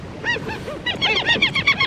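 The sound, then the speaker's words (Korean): A flock of seagulls calls repeatedly, with overlapping high, nasal cries that grow busier and louder toward the end, heard alone over a faint background wash. “갈매기 소리예요. 한 번 더 듣죠, 박 PD. 갈매기 소리.”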